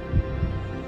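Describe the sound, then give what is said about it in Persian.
Two deep, muffled thumps of a person's own heartbeat, heard as anxiety rises, a lub-dub pair close together over a low steady hum, with no voices present. “لحظه به لحظه به استرابم اضافه می شد میتونستم صدای قلبم رو بشنوم آخر یه روز این قلب از دستم خسته میشه و با هم قهر میکنه و دیگه نمیتپه”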